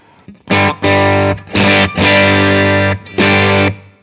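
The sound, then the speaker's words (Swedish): Electric guitar played through a tube amp fitted with a tube giving more compression than the other tubes: four loud, gritty distorted chords, each held steady and even for about half a second to a second with short gaps between, and no talking. “Känns det annorlunda att eh, ha mer kompression än de andra rören eller har det mindre kompression eller hur kändes det?”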